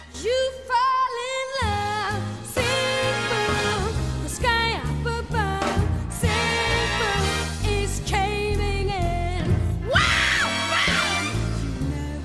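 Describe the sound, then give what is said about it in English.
A loud, dense song that turns from sweet cabaret-style music into a cacophony: blaring brass bursts in, and a high vocal screams and wails over it, with a steady pounding low end throughout. “And it's the same sweet cabaret style music. And then it bursts into this cacophony of brass instruments”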